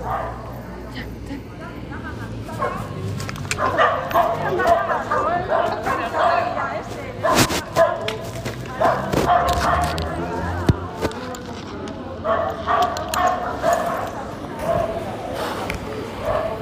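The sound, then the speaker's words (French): A dog barks and yips repeatedly in short bursts, with some whining, while people talk over a busy, noisy background. “Putain, bah heureusement qu'il n'y a pas plus de chien sur le camion.”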